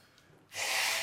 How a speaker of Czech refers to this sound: takzvané okénko, smrkací okénko.